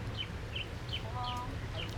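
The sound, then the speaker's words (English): Birds chirp and sing outdoors at Princess Key beside a little pink cabana, short high calls repeating every few tenths of a second over a steady low background hum. “I don't know if you can hear the birds in the background, but we're, we have birds singing songs to us right now.”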